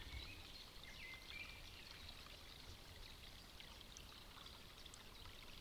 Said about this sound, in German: Hörst du das Wasser hinter mir? Ich habe einen Platz neben einem kleinen Bach, Bächlein, glaube ich, sagt man, ein kleines Bächlein gefunden.